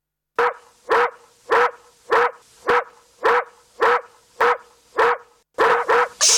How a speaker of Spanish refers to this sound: El perro está ladrando.